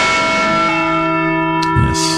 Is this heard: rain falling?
no